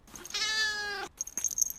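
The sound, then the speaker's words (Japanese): A single drawn-out, clear meow from a calico cat, lasting under a second, followed by a few faint soft rustles as the cat jumps lightly onto a person's lap. “にゃーと人泣きすると三毛猫は軽やかに僕の膝の上に乗ってきた”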